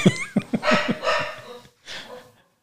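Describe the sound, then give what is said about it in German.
A dog gives a few quick, sharp barks, then trails into two longer, whiny yelping calls with a short pause between them. “Ist das mein Hund, der gerade bellt?”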